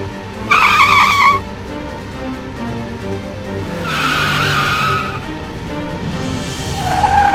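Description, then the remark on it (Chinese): Loud, high-pitched tire screeches from a taxi carrying a crime suspect braking hard while fleeing police, three separate squeals over a steady engine rumble, the first and middle ones longest with wavering tones; the tires give off white smoke. “我就听到他他们前面的这个刹车声啊，吱吱吱的刹车声，还有那个轮胎啊，我就很清楚的看到前面那辆出租车，他们他犯罪嫌疑人所在那辆出租车啊，那个轮胎啊，吱吱吱这样这样叫，还冒冒着白烟。”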